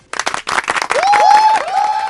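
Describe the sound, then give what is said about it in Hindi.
A crowd bursts into steady, dense applause for engineers, and partway through someone adds a couple of sharp rising whistles over the clapping. “तो ये तालियां उन तमाम इंजीनियर्स के लिए जिनको मैं जानती हूँ नहीं भी जानती हूँ”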